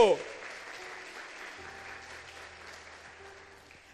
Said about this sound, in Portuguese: Aplauda Ele se você crê nisso.